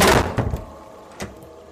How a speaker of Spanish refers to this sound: Ahora oídme, continuó después de cerrar satisfecho la puerta.